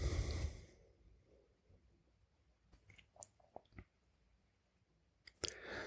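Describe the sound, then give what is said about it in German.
A breathy yawn fades out quietly at the start, followed by soft mouth clicks and lip smacks, then a short breathy burst near the end. No one speaks. “Dann kommt auch ein Gähnen.”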